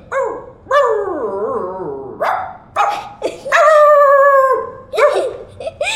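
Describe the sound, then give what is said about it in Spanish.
A person mimics a dog, mixing short yelping barks with long, wavering howl-like cries, loud and alone with brief pauses between the calls. “tú puedes imitar algunos animales. Tú hablas su idioma. Mm, a ver, los cochinitos. A un perro, a, un perro.”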